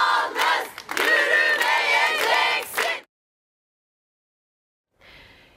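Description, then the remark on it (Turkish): A crowd of women protesters in the street in Turkey shouts together for their freedom in a loud, sustained, high-pitched chant for about three seconds, then breaks off into silence before a brief, fainter burst of voices returns. “Türkiye'nin pek çok noktasında kadınlar sokağa çıktılar. Kendi özgürlükleri için bir kez daha haykırdılar.”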